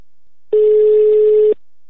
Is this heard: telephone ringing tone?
yes